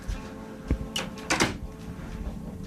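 A door swings shut with a couple of sharp clicks and a brief rattle of the latch, followed by quiet room noise.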